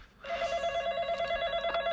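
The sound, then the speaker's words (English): A telephone rings during supper with a steady, bright, sustained electronic tone and rich harmonics, starting abruptly after a brief quiet moment and continuing fairly loud, with no talking. “It's probably a telemarketer. They love to call during supper.”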